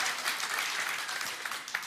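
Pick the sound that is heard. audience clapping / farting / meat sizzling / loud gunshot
audience clapping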